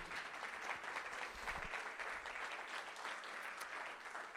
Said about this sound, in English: Is anybody here with me? Can you give the Lord a strong hand clap if you're understanding?